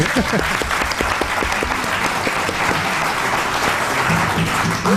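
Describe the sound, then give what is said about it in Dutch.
A modest round of applause from a small group for a favourite programme, steady clapping filling the whole stretch with dense, overlapping claps and faint voices murmuring beneath. “Geef ik graag een klein applausje voor.”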